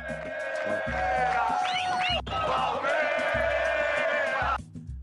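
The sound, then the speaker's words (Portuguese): A stadium crowd of Palmeiras football fans chants loudly in unison, a dense roar of many voices with rhythmic pulses, briefly dipping before surging again, then cutting off near the end. “Parece a torcida do Caxias, isso aí.”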